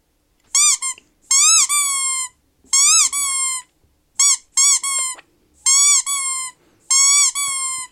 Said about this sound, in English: It's basically for torturing dogs, I think. It's called Dog Squeaky Toy. I can't think of any other reason for it apart from dog torture.